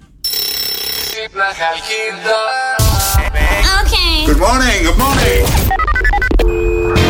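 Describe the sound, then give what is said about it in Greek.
A telephone rings repeatedly for a wake-up call on the Sokafe Morning Show radio broadcast at 104.8, with bright, steady electronic tones, then a loud burst of swooping, warbling sound effects crashes in over it, busy and cluttered to the end. “Λοιπόν, πάμε να κάνουμε wake up call, παιδιά.”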